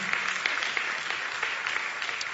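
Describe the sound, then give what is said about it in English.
A crowd applauds for God with steady, dense hand clapping that keeps an even loudness throughout, a bright crackle of many overlapping claps with no voices standing out. “Can you clap your hands for God?”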